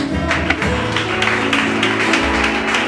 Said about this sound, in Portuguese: E amém. Glória a Deus. Aplaude Jesus.